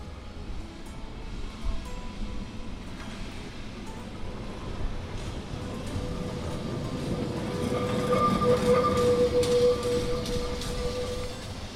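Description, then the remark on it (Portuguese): An electric tram (elétrico) rumbles steadily along its rails, the noise building toward the end as thin metallic wheel squeals ring out over the low rolling clatter. “e agora uh, eh, tenta-se também que, que, o elétrico, o modo elétrico, volte a ser e volte a ser um meio de transporte amplo como já foi uh, outrora no século passado.”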